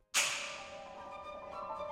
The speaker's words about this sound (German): Und da ist noch ein Krachmacher, die Peitsche. Aber die sieht gar nicht wie eine Peitsche aus, sondern eher wie eine Startklappe beim 100-Meter-Lauf. Zwei Holzschenkel, die an einem Ende durch eine Metallfeder verbunden sind, werden für den Knall